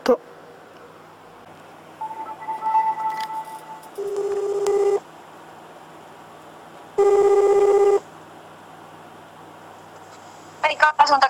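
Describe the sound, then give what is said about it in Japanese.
An outgoing telephone call ringing on the line: steady electronic ring tones about a second long repeat with pauses, heard clear, with short beeps at the start and end. “電話してみようって”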